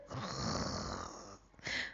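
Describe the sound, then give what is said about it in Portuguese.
A voice imitates snoring with a long, rumbling inhaled snore, a brief pause, then a short airy exhale, fairly loud, with no words spoken. “em cima de uma avó roncando”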